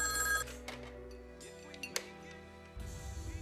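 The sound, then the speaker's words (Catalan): A telephone rings with a bright, metallic trill, fading into sustained tones before a second burst of ringing starts near the end. No one speaks. “Telefona una persona que s'acaba de rentar i que s'ha posat una gota de perfum seductor al pit i les orelles.”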